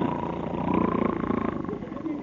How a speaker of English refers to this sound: Yeah, and I'm snoring again, and I ain't asleep.